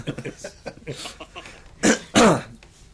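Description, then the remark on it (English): Two loud, wet, phlegmy coughs burst out near the end, following a stretch of soft murmuring speech and throat noises. “that was quite a chewy cough, mate.”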